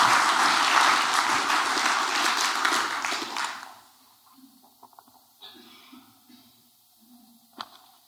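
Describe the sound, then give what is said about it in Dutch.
An audience claps loudly and steadily for a few seconds to welcome a speaker, the applause then cutting off into quiet with a few faint scattered noises and shuffles. “maar dus eerst graag een hartelijk applaus”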